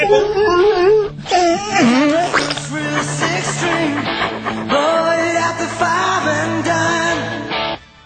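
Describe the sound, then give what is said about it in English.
A dog howls and whines in long, wavering high-pitched wails over loud rock music played on Triple M radio, the howls rising and falling with the song for several seconds. “And oh, hang on, isn't this the song that sets off the dog?”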